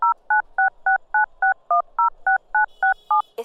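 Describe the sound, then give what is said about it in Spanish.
A rapid, evenly spaced run of about a dozen telephone keypad tones, each a short clear dual-pitched beep, dialed with no talking, ending in a faint higher tone and a click. “Hecho, yo los llamo.”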